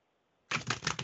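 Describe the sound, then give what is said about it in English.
After a near-silent start, a burst of dense, rapid riffling and clattering erupts: a deck of tarot cards being shuffled for a tarot reading, with quick flicking pulses and no voices. “I'm shuffling my cards if that's what you hear.”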